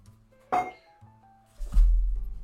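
An unopened glass wine bottle knocks once against a table, then is set down beside the speaker with a heavier thud and a brief low rumble as it settles. No one speaks.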